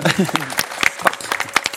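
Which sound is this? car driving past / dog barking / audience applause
audience applause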